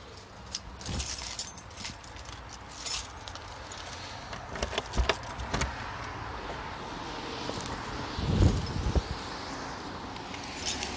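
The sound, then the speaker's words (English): Outdoor city street ambience in Minneapolis in 2019: a steady wash of background noise broken by scattered clinks and metallic jingling, with a louder rustling thump near the end. No one speaks. “This is what it sounds like in Minneapolis in 2019.”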